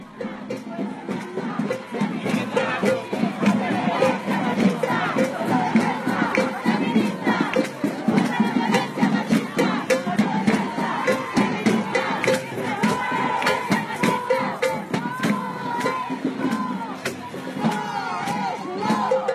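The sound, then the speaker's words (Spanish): A large crowd chanting and shouting together at an International Women's Day march, a dense, continuous roar of many voices with rhythmic surges, loud throughout. “Y tenemos una serie de, sonidos, una postal sonora precisamente el día de ayer.”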